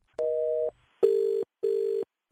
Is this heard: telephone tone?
yes